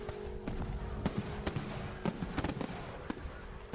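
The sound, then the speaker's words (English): A fireworks display set off beside a burning bonfire on a cold night, cracking and popping at irregular intervals, roughly a dozen sharp bangs, some in quick pairs, over a steady low rumble, with no voices. “I can still see that bonfire now, with the fireworks going off in the background, and my cold breath rising into the air”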